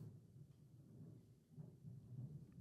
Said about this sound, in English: damn, is that thunder? think so. Um, Texas, man, you guys got. Jesus, fucking you brought it. has, hasn't rained, has it? I brought the thunder.